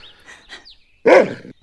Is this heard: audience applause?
no